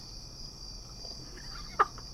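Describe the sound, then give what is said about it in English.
Steady high-pitched cricket chirring fills the background, a continuous faint drone with no talking, broken near the end by one brief sharper chirp that stands out slightly louder. “You hear the crickets? They're helping you out.”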